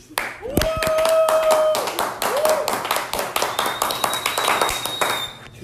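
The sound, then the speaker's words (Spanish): A burst of loud, sustained applause, many hands clapping in a dense, rapid patter for several seconds, with a few whooping voices and a whistle-like tone rising above the clapping. “Un fuerte aplauso ahora mismo para el señor.”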